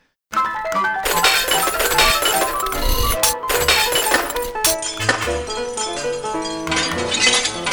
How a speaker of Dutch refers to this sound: En dan plots, plots gooi je al die borden kapot.